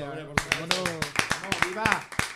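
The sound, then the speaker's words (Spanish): Steady, rhythmic hand clapping for four people congratulated on their initiative, about a dozen sharp claps at a quick even pace, sounding over a voice talking and chanting "ole" throughout. “Bueno, pues viva ustedes, un aplauso, ¿no?”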